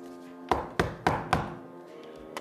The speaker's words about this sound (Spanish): me arrastré como pude hasta el piso superior y llamé débilmente a la puerta justo encima de la mía.